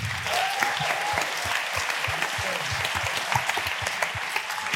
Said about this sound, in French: Vous pouvez vous applaudir, vous, d'être là ce soir.